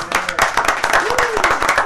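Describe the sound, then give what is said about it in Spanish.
A small group applauds in the Latina Estéreo radio booth, welcoming guests from Miami. A steady patter of many hands claps at once for about two seconds, with a brief rising vocal whoop partway through. “Por favor, un aplauso porque hay mucha gente en esta cabina hoy.”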